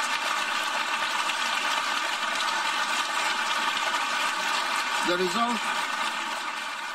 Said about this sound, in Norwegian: Og det du hører her, det er uvanlig. I en ellers så ganske beherska forsamling så klapper delegatene så voldsomt at ordstyreren ikke får snakka.